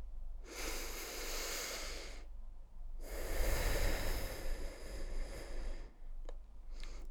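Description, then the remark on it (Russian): A slow, deep breath drawn in during a breathing exercise before an affirmation, a short pause, then a long, full exhale pushed out to the end, followed by a couple of faint clicks. “Девочки, делаем глубокий вдох и глубокий выдох до конца.”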